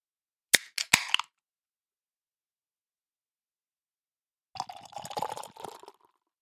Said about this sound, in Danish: Nu kan jeg jo ikke lave lyden af, at åbne dåsen, for det har du jo gjort. Vi deler jo. Så jeg vil nøjes med at hælde op.